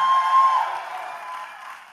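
A large crowd roars together, many voices imitating lions as they give God their best roar, in a loud, sustained wash of noise that gradually fades over about two seconds.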